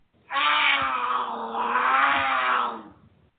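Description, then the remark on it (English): A cougar lets out a single loud, drawn-out growling yowl lasting a couple of seconds, harsh, with no other sounds around it. “Do you have cougars on your porch swing?”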